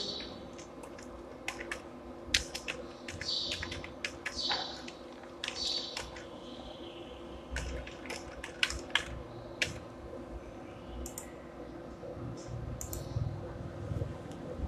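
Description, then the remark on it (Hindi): Keyboard typing in irregular bursts of sharp clicks, fairly clear, with short pauses between keystrokes over a low background hum. Someone selects UPI as the payment method and types in their UPI ID. “ठीक है तो यहाँ पे यू पे सेलेक्ट करता हूँ मैं और अपना यू पी डाल देता हूँ”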